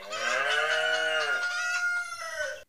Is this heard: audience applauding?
no